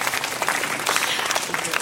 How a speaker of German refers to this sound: Vor sechs Tagen haben Sie Ihren 80. Geburtstag gefeiert. Dürfen Sie eigentlich nochmal klatschen, oder? Ein Geburtstagsklatschen.